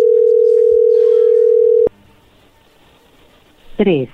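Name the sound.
phone call being dialed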